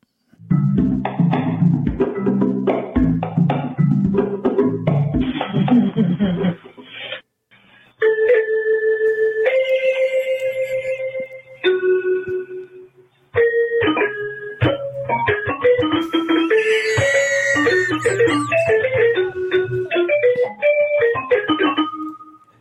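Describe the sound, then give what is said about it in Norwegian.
An electric keyboard played haphazardly by Koko the gorilla, from the video Coco Plays the Electric Keyboard: dense clusters of mashed notes, then single held tones and brief pauses, then more scattered electronic notes, loud with no talking. “en video her eh, av Coco Plays the Electric Keyboard.”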